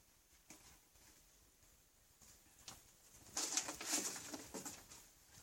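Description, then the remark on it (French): A pigeon or dove coos softly a few times, the calls growing louder and fuller toward the end, with no one speaking. “Dans cet œuf, il y a un oiseau.”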